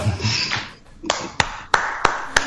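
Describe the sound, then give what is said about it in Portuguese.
Five sharp, crisp hand claps in a slow, steady rhythm, each one bright and snappy. A short stretch of muffled, indistinct sound comes before the clapping starts. “Palmas!”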